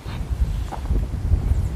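Heavy wind buffets the microphone in rumbling, low gusts that swell and thump unevenly throughout, loud, with no clear voices above the roar, on a very windy day.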